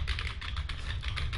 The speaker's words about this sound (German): irgendwie tippen. Ich hoffe, ihr hört das im Hintergrund vielleicht so ein bisschen. Da haben wir dann die Tastenschläge, die aufgezeichnet werden und das nennt man dann Keylogger.